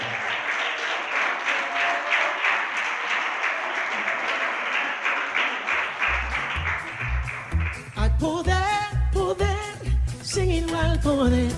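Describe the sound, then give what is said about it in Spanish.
A large crowd claps steadily in loud, sustained applause; midway, bass notes and instruments come in, and the clapping carries on under the music as singing begins. “Si va a aplaudir, háganlo para él.”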